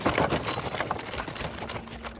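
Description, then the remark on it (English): Horse hooves clip-clop in a steady, moderately quick rhythm as Carrie Nation's buggy, loaded with bricks, is pulled out of town. The sharp knocks repeat evenly over a faint rolling rumble, with no voices. “She cooks a day's worth of food for her husband, loads her bricks up into her buggy, and rides out of town.”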